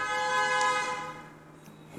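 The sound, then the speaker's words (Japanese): A car horn blares in one long, steady honk that holds for over a second before fading out, loud with no one speaking over it. “なんかすごいクラクションが鳴りましたね。”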